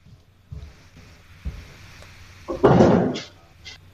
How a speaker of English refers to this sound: So first of all, I'll go close my door. Hang on one sec.